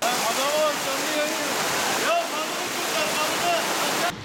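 A loud, steady roar of rushing floodwater after a heavy downpour in the west of Turkey, a dense churning hiss with no break, while faint voices rise and fall underneath it.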